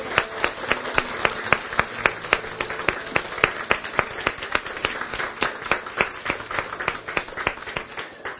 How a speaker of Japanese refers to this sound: 最後にイエス様に拍手を送ります。感謝します。アーメン